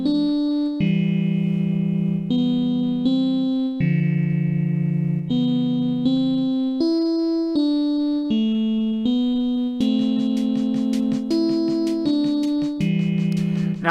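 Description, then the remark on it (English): A synthesizer plays a slow progression of sustained chords in a composition from July 2017, changing roughly every second, with a bright, slightly buzzy tone at a steady volume and no voices. “Matt's final composition for a while, however, would be on July 2017, and it's uh, simply entitled "Sad Song."”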